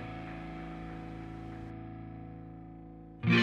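A sustained, droning distorted guitar chord rings out and slowly fades, then a loud burst of full band rock music kicks in abruptly at the end.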